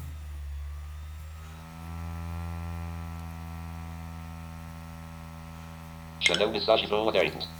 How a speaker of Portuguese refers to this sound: O CD está ainda rodando, como vocês estão a ouvir.